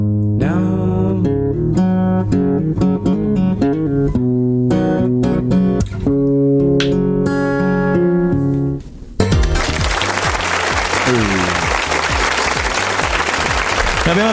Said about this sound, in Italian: ascoltato la prima canzone del nostro ospite